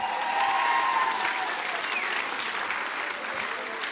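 An audience gives a big round of applause for a leader, a dense wash of clapping hands at a strong, even level that holds for the full stretch, with a few indistinct voices mixed into the crowd.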